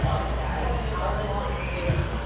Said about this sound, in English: I'm sitting at my local cafe having a cup of coffee so excuse me while I grab a sip.